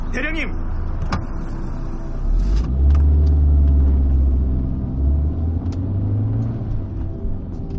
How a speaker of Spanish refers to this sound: Circulamos durante una hora por una autovía completamente vacía.